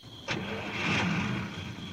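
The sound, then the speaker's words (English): A car engine turns over with a sharp catch and roars to life, swelling briefly before settling into a steady running hum, as the driver sets off again slowly in the Ozark Mountains in Missouri. No voices. “I got into the car again, drove on slowly.”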